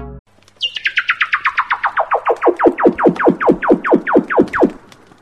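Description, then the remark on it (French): A baby seal calls underwater in a rapid, loud run of about two dozen chirping pulses that slide steadily downward in pitch and slow slightly, with no other sounds. “C'était un phoque bébé. C'était bien un phoque, et non un sabre laser”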